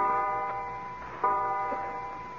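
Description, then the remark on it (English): A clock strikes 12 at midnight on Christmas Day with resonant, ringing strikes, one tone sustaining and fading before the next sounds louder. No voices. “What's that clock striking? It's 12 o'clock.”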